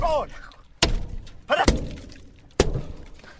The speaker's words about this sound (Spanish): Golpea con la llave en L, el parabrisas del auto.